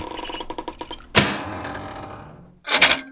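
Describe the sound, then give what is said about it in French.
A quick series of ratcheting mechanical clicks as a large side lever is pulled hard by hand, then a loud heavy clunk that rumbles and fades as a mirror swings over and turns around to reveal a second mirror, ending with a second sharp clatter as it settles into place. “Il coince sa brosse à dents entre ses mâchoires, agrippe des deux mains un gros levier sur le côté, le tire fort vers lui et...”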